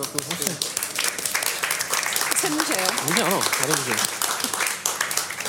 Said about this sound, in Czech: se roztleskala jako první.